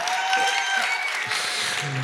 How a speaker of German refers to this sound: Wenn du es noch aus dem Podcast anguckst, fragst, warum ist hier so ein Applaus? Unsere Kirche hat Mitleid mit mir, weil ich das vierte Mal hier bereits stehe.